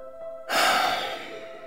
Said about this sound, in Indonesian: … mengambil nafas panjang.